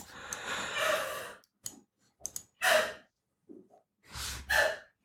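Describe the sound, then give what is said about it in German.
A long breathy exhale followed by a couple of sharp sneezes, each preceded by a quick inhale, with short quiet gaps and no talking. “Gesundheit.”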